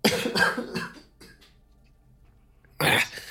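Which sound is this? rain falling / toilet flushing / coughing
coughing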